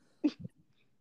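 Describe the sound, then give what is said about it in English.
A single sneeze brought on by allergies: a sharp, breathy burst followed by a shorter, lower-pitched tail, then quiet. No one speaks. “Bless you. Oh, my allergies.”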